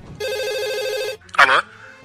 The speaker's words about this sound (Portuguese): É, barulho de telefone.